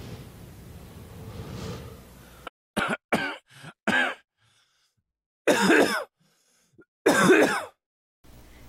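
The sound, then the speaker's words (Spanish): A run of harsh, phlegmy smoker's coughs and throat clearing, close up: a quick cluster of short hacks, then two longer, rasping bouts separated by silence, after a brief stretch of low background noise. “Y no, no era tu tío el Chimeneas el que estabas escuchando, era el podcast.”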